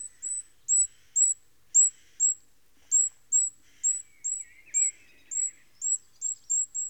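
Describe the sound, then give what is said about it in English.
A goldcrest gives a steady series of thin, very high beeping calls, about a dozen short notes in quick succession, soft and clear with a faint twittering underneath. “Usually, I first notice there's a goldcrest around by its call.”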